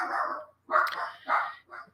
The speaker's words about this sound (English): My dog started barking.